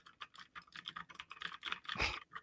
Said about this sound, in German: Ich habe mir eine mechanische Tastatur geholt. Und ähm, jetzt kann ich euch beglücken während des äh, Podcasts, immer wenn wir nach irgendwas recherchieren, mit diesem Sound.